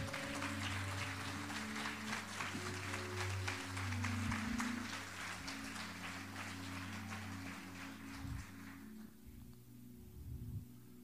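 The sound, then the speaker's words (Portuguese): A large church audience applauds loudly and steadily for the King of Glory for about nine seconds over sustained, droning keyboard chords, then the clapping dies away, leaving the low music and a few scattered sounds. “Dê um aplauso bem forte ao Rei da Glória, irmão.”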